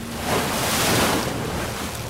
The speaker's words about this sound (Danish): De store bølger slår ind mod skibets sider, og en stærk blæst hjælper det kæmpemæssige træskib ud på det store, åbne hav.